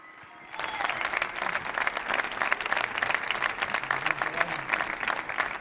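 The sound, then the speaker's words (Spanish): A large crowd in Sevilla bursts into sustained applause and cheering for performing artists after a brief quiet moment, the dense clapping continuing steadily and loudly with shouts mixed in throughout. “Fuerte ruido para ellos ahora, ¿vale?”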